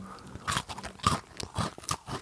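Someone bites into a cookie and chews it, with a series of crisp crunches repeating irregularly over a couple of seconds, loud against an otherwise quiet background.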